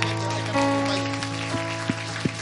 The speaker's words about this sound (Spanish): Dale un aplauso al Señor, dale un aplauso al Señor.